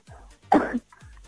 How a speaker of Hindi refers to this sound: अभी पता चला आपका पता लग गया मुझे आपको खांसी बहुत आती है आप कौन है